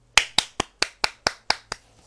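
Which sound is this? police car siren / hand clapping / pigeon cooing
hand clapping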